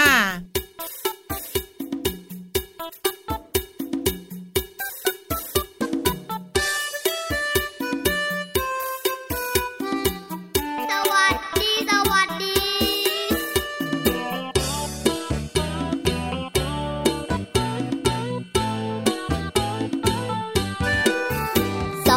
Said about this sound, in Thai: เดี๋ยวไปสุกกันต่อกับเพลงที่มีมาฝากดีกว่าค่ะ